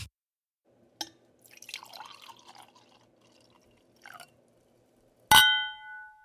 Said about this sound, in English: Clink, clink, clink.